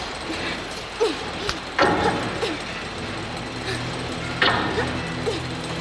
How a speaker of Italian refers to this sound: È un macchinario composto da piccole dita metalliche che battono un ritmo sostenuto.